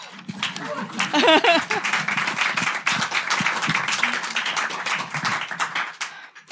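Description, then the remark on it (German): A live audience at an on-stage recording of the Bundestalk claps in a dense, steady patter of many hands that holds for several seconds, with a brief burst of voices or laughter rising over it early on. “Sie können auch klatschen, wenn man sie hört, ist nicht schlimm.”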